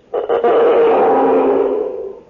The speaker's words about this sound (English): I'm going to hide in the bushes and pull this string with the rosin on it through this big tin can like this.